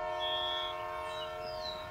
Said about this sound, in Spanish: Muto oyó el silbato mucho antes de divisar el tren.